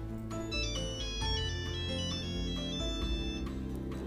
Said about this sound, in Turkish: Ben de neyse cep telefonumu veriyorum. O da biraz sonra arıyor. Telefonum çalıyor.